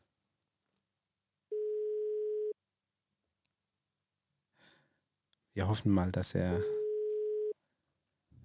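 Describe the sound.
A telephone ringback tone sounds twice as a call is placed from a studio: a steady, mid-pitched electronic burst of about a second, then a second one that starts while a person is talking over it.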